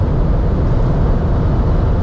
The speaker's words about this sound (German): Allerdings, wenn das Fenster zu ist, ist es immer noch relativ laut herin, weil die Karosserie einfach Windgeräusche verursacht.